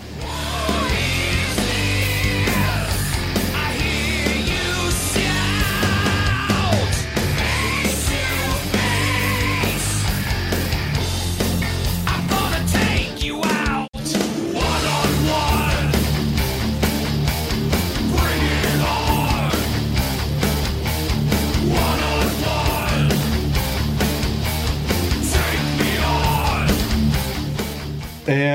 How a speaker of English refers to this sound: How is the chorus in that song? Terrible. Does it make up for what you heard before? No. Hey, listeners, you be the judge. Take a listen to this.